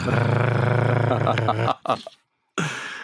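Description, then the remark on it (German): A cat rubs right against the microphone, producing loud rustling and a low rumbling drone, then a few soft bumps, a brief silence, and the muffled rubbing starts again. “ihr Ohren da draußen, äh, äh, schmust gerade an mein Mikrofon und sagt damit allen da draußen Hallo.”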